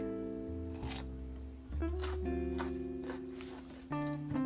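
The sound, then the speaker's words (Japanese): Crunchy chewing of a firm, hard CX peach, with five or six crisp crunches at an uneven pace over a steady humming tone in the background. No one talks. “だってこのバリバリって音ですよ桃にあるまじき硬さだけどこれが美味しい”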